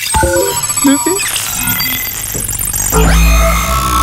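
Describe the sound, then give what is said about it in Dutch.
A busy electronic start-up jingle for a time machine plays after a button is pressed. Chiming, warbling tones and bell-like ringing are layered and clashing, rising into a louder burst near the end. Played loud, with no talking. “Oké, dan komt dat ingewikkelde muziekje.”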